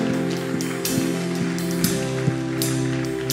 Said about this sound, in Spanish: Dale un aplauso fuerte a Dios.